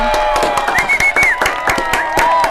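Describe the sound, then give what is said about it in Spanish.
Applause from a small group in a radio studio for a doctor who wrote the book De vuelta. The claps are quick and irregular at a steady loud level, with some sustained tonal sounds and a few rising whistle-like notes running underneath. “Somos dos para aplaudirte, pero hay un montón detrás de la pecera.”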